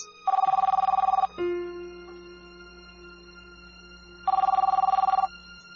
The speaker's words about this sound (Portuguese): Eis que o telefone toca repetidas vezes.